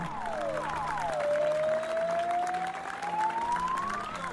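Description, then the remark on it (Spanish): Steady, dense applause from many people spread across a city at 9 pm, the nightly applause returning after five months as a tribute to one man and to frontline health workers, with a siren rising and falling above the clapping throughout. “Por la noche, después de cinco meses, volvieron los aplausos de las 21 a la ciudad.”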